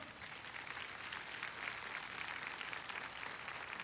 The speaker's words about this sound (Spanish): ¿Por qué no le damos un fuerte aplauso al Señor?